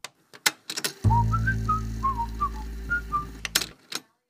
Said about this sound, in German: Aufgrund rechtlicher Einschränkungen dürfen wir die musikalischen Inhalte, die nicht von uns selbst produziert sind, auch nicht zum Nachhören anbieten. Deswegen hört ihr immer, wenn fremde Musikinhalte kommen würden, diesen Ton.